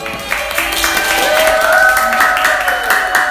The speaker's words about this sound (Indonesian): Terima kasih banyak sekali lagi buat bidang KWU. Tepuk tangannya dulu dong.